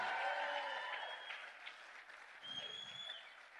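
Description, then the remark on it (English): An audience claps their hands at a preacher's urging, a dense, sustained wave of applause that holds steady for several seconds, with faint sustained tones and scattered voices underneath. “Do better than that and clap your hands.”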